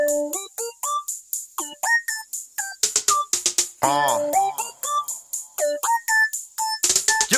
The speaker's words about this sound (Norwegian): Eh, en sang om eh, et spill eh, laga av en eh, hobbyrapper.